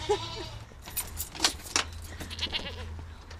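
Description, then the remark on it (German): Five goats let out of their pen at a children's and youth farm in Munich-Ramersdorf: metallic jangling and clattering, like a gate latch or bells, with a faint bleat or two over a steady low rumble. “man kann schon fast sagen, bei ihren fünf Ziegen”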